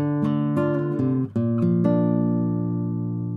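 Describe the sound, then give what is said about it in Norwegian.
A B-flat major chord played on a keyboard, struck several times in quick succession with a brief gap near the middle, then left ringing and slowly fading. It is played to show the key of the next theme in a Beethoven first movement that starts in D minor. There is no talking. “Og B-dur, det er den akkorden her.”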